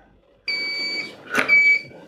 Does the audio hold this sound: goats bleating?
no